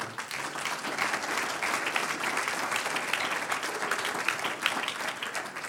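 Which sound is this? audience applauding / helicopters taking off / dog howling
audience applauding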